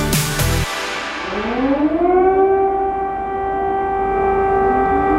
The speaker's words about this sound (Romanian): Așa începea dimineața de 24 februarie anului 2022 în Ucraina, în Kiev și nu numai, în multe zone unde sirenele sunau încă de la prima oră atunci când Rusia a hotărât să bombardeze Ucraina.